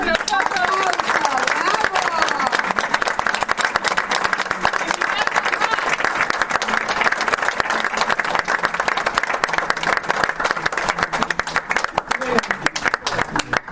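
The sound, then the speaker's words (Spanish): Sustained audience applause, a dense wash of many hands clapping at a steady loud level for the whole stretch, with scattered crowd voices and cheers mixed into the noise. “Un aplauso para todos.”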